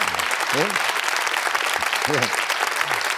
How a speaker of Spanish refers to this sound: No entiendo el aplauso. A veces no lo entiendo, o sea, ¿qué aplaudís?